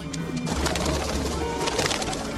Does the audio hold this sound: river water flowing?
no